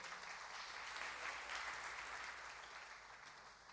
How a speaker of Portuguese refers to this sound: Você pode aplaudir esse Deus maravilhoso?